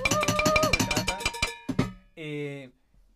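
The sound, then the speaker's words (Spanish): Rapid, loud banging on cooking pots in a cacerolazo, a dense run of ringing metallic clangs for about a second and a half. A couple of final strikes follow, then a brief sustained ringing tone. “Esto va, viene cacerola, la lata y...”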